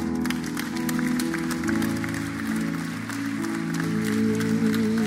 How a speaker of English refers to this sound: Come on, let's give them a round of applause.